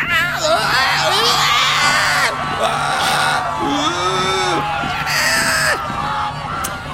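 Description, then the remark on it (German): Loud, chaotic crowd uproar in a packed club after the music suddenly stops and the bouncer tumbles down the whole staircase to the dance floor: many overlapping voices screaming, yelling and whooping at once, sustained throughout over a low steady hum. “Geschrei und Getose macht sich im kompletten Club breit.”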